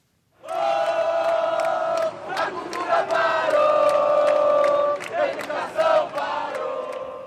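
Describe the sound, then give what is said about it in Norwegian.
A crowd of demonstrators in Rio, Brazil, made up of thousands of employees of cultural institutions and schools, shouts and chants together in a loud, sustained roar, with rising and falling surges of voices and sharp yells cutting through for about seven seconds. “Kulturlivet har stanset opp Skolene fungerer ikke, og helsevesenet er en skandale, roper deltakerne i en demonstrasjon her i Rio nå i helgen.”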